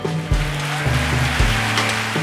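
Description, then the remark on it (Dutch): Steady, dense applause from an audience for the presenters at the first Echt Gebeurd Gala, a continuous crackling wash of clapping with a low musical hum underneath, holding at an even level throughout without voices. “Mag ik een hartelijk en warm applaus voor onze presentatoren Paulien Cornelissen en Micha Wertheim”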